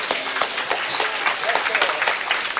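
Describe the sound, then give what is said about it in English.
A crowd claps steadily for a man in a sustained burst of applause lasting a few seconds, dense and fairly loud, with a murmur of voices mixed in. “Give him a clap.”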